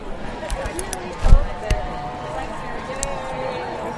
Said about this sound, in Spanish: Este es el ruido de los paraguas que se empiezan a abrir poco a poco porque la lluvia, lo que parecía que eh, era, era un poquito de chirimini, esto esto se queda.